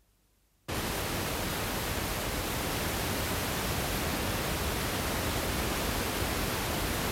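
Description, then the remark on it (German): After a brief moment of silence, a steady, even wash of stereo test noise from two loudspeakers connected in correct phase switches on and holds at a constant loud level, a dense full-range hiss centred at a point midway between the two speakers, with no voices. “Bei richtig muss das Rauschen an einem Punkt in der Mitte zwischen den beiden Lautsprechern entstehen.”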